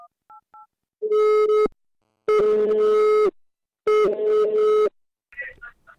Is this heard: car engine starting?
no